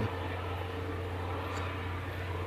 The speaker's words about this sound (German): Das ist aber wirklich ungewöhnlich, dass jetzt ein Hubschrauber hier lang fliegt.